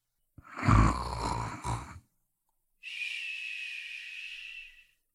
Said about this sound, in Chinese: 头刚一碰沙发，一阵呼噜声就震天响啊！